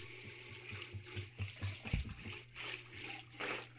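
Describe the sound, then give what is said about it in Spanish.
Water runs steadily from a tap, turned on again to rinse hands, with a soft, hissing splash, accompanied by a low hum and a brief thump partway through. No one speaks. “Ya, abre, el agua otra vez, güey.”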